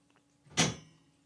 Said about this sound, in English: If you're hearing these big clicks in the background, those are the pipes next to me because I'm in the basement next to the boiler room.